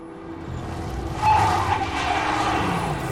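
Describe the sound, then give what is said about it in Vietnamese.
Steady roar of cars speeding along a main road with a louder whoosh swelling midway, joined briefly by a thin, faint tire squeal as the cars suddenly brake, before the traffic noise carries on. “Những chiếc xe hơi đang lao vùn vút bỗng thắng phanh kèn két”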